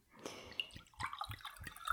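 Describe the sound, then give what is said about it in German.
Apple juice, pressed last year from apples gathered from meadow orchards, glugs from a bottle into a glass, a quick series of bubbly gurgles with splashy drips between them, fairly quiet and with no voices. “Gieß mal ein. Gluck, gluck, gluck. Hört sich gut an.”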